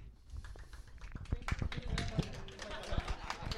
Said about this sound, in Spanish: Hay aplausos en la sala.